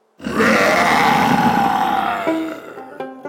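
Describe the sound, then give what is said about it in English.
A single deep, loud lion roar with jaws opened wide, rumbling for about two seconds before tapering off, followed by a few brief bright ringing tones at the end. “A moment later, the lion opened its jaws wide and let out a mighty roar.”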